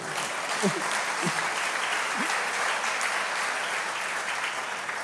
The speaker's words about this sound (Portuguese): Muito bom, esse é um homem de Deus. Aqui, ó. Palma para ele. Pode aplaudir, gente.